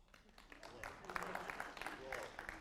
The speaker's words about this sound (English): Don't clap too loud.